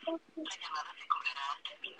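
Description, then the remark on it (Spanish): A phone call on speaker: a brief tone at the start, then a tinny, band-limited recorded voice over the line, an automated voicemail greeting, as the call is sent to voicemail. “entra y después te manda buzón. O sea, ella está mandando a buzón, creo.”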